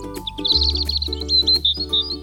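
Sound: sparrow chirping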